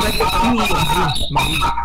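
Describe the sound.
Audio feedback from a participant's sound being too loud and reverberating back into the radio station: a garbled, echoing voice smeared over steady ringing tones and a faint squeal, loud and continuous for about two seconds with a brief dip near the end.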